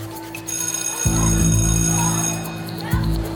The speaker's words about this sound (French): La cloche sonne, ils se précipitent dehors.